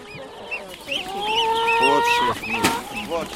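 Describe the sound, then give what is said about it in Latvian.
Several hens cluck and squawk in quick, overlapping bursts, with a steady hum of busy crowd noise underneath, at a monthly market in Viļāni, Latvia. “Tirga burzmavistu kladzinošana smirdzīga garmoškas spēle, bet poritam baznīcas zvoni, kā jau pisvādinis saukdami ļauts izmišu.”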